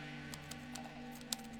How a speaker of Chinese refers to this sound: 所以，我在键盘上打起了字。